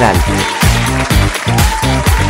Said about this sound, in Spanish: Eso es. Eso es. Gracias, gracias, gracias por esos aplausos tan Se le agradece un montón.